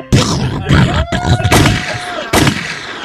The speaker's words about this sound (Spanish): ¡Doble tiro!